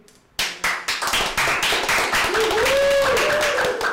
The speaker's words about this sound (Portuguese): É, é a primeira vez que eu recebo palmas.